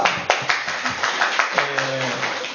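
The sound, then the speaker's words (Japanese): A church audience breaks into dense, steady applause for Jesus, many hands clapping at once with a few sharper claps standing out, while voices call out over it in the second half. “もっと大きく一番大きくハレルヤイエス様に拍手しましょう”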